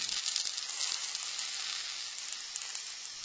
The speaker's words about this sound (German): Den Kürbis, den tut man zuerst schälen und noch schneiden. Dann kommt das in die Pfanne mit Zwiebeln und Knoblauch, tut das ein bisschen andünsten.